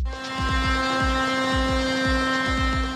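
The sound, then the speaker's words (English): Heavy tractor engines drone steadily on a street in The Hague, Netherlands, as tractors join a protest: a loud, continuous mechanical hum with deep rumbling and repeated low throbbing pulses, with no voices. “Not an unusual sight in the Netherlands these days. Tractors on the streets of The Hague joining a protest.”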